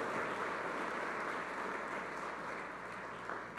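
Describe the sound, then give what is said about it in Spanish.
Steady, dense applause from a crowd, given to the Lord for his work: a continuous wash of many hands clapping at an even loudness throughout, with no voices standing out. “Ah, fuerte el aplauso al Señor por la obra maravillosa que Él hizo.”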